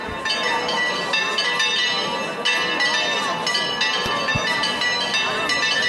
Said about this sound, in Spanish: Pues están los campaniles, efectivamente, de la Hermandad de Viva Enrique de la Condesa y ponen a la Virgen frente a frente de la Hermandad. Mira, mirar qué sonido en esta madrugada rociera, en la sintonía de la cadena Ser, mirar qué sonido.